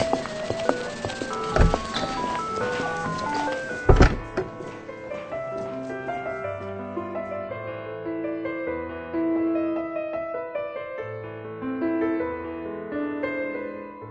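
Someone whistles the melody of Für Elise, the piano piece Ludwig van Beethoven composed in 1810, in a steady run of clear, bright notes, with two heavy thumps near the start and no talking.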